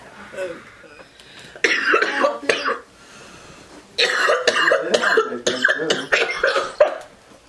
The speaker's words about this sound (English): Cough level on a thousand, yo.